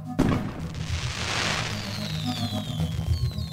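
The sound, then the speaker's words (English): A sudden loud blast of explosives set off at a gender reveal party in a southern New Hampshire town erupts, followed by a deep, sustained rumble and hissing wash of noise that slowly fades, with faint high whistling tones trailing off afterward. “Turns out that blast came from an over the top gender reveal party.”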